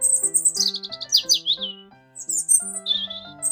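Birds chirp in quick bursts of bright, high tweets and trills, with a brief pause midway, over a soft, steady musical tone underneath.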